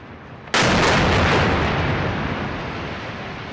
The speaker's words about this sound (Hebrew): This is the moment an Israeli missile strike destroyed a high rise building housing the Associated Press, Al Jazeera, and other office spaces and homes in Gaza on Saturday.